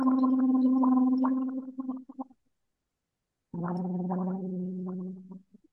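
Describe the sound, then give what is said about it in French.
Two sustained buzzy hums voiced through a straw in a vocal exercise, separated by a clear pause; the second tone sits at a slightly lower pitch than the first, steady with a faint bubbly flutter. “Euh, maintenant, avec la paille vous changez de son, mais vous arrêtez entre chaque son.”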